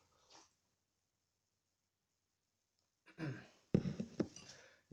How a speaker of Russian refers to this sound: Так я чай, чайку сейчас глотну.